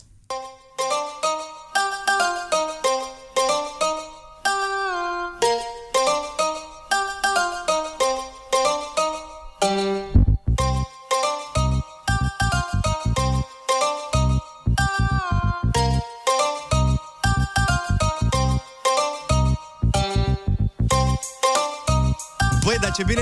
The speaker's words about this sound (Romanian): Ori pe piesa asta, da, hai că dacă vreți pe piesa asta, uite, o dau de la început și o lăsăm să cânte un pic la liber dacă